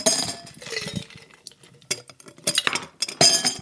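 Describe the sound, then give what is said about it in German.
Ice cubes clink and rattle into two wine glasses with glass straws in several irregular bursts, bright and crisp with brief pauses between, loudest toward the end; no one speaks. “Die Gläser sind gefüllt mit Eiswürfeln.”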